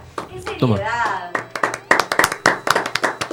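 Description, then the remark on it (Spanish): A short round of studio applause from a few people welcoming a guest, sharp quick claps building in a steady patter after a brief vocal exclamation at the start, with a voice running underneath. “con todos ustedes, un aplauso.”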